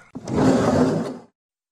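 A single loud, grating scrape of a chair being dragged at night in a room with a child's crib, about a second long, with a rough, creaking screech. It stops abruptly into silence, with no one speaking.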